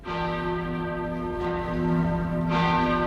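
A large church bell rings steadily with rich, sustained harmonic tones, new strikes landing about every second and a half over a lingering hum, loud with no voices.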